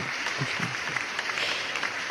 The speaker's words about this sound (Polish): Oklaski. Oklaski.